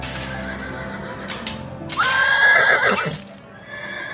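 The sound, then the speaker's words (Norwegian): A horse neighs loudly, a single drawn-out whinny lasting about a second with a shaky, rising-and-falling pitch, over a faint background of shuffling noise. “Hester er jo ganske obvious.”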